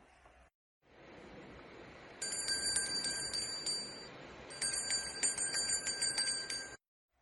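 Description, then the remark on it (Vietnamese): A bright, clear bell rings loudly in two bursts of rapid repeated strikes, its tones shimmering over a steady rushing background noise, with a short pause between the bursts. “Theo tiếng chuông trong trẻo vang lên, một cái chuông vàng trói bất ngờ từ trên cao chụp xuống”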